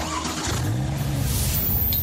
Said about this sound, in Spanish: probar la velocidad de los autos más modernos